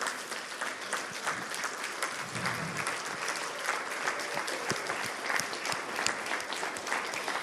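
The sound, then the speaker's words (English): An audience claps continuously to honor people for what they have done over the last 10 years, a dense, steady wash of many hands with bright crackling claps that holds at an even level from start to finish, with no voices. “And if you're at home, you can put some clapping on the chat.”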